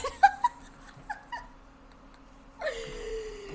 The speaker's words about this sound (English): Ah! I just heard a oh, cat. That's my cat.